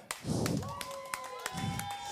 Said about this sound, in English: Thank you. These claps are for you.